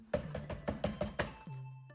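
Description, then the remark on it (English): A quick, evenly spaced run of about seven sharp knocks on a door by a drill sergeant at about two o'clock in the morning, followed by a steady low hum once the knocking stops. No one speaks. “Somebody knocking at the door.”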